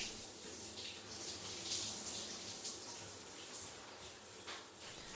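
Steady running water hisses and splashes continuously, like a shower spraying, a broad even rush with no voices.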